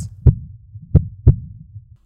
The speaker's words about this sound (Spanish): una reglamentación que prohíbe interrumpir la gestación si el doctor puede detectar actividad cardíaca embrionaria, es decir, si se escuchan los latidos.